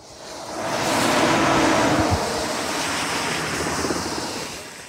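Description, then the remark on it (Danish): A steady, broad roar of road traffic from a road by the Skjern Å river in Denmark fills the whole stretch, swelling slightly then holding level, with a faint low thump partway through and no voices. “Som så mange vildsporsreportager, så kan man altid høre øh, vejen.”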